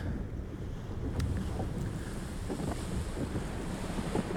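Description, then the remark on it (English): A sailboat turning around to sail back over open sea, with a steady low rumble of wind buffeting the microphone and waves washing against the hull, plus a few brief knocks and splashes; no one speaks. “With great disappointment, they decide it's time to turn around and sail back.”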